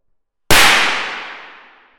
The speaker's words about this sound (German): Der dabei fließende Strom ist so groß, dass der Draht explodiert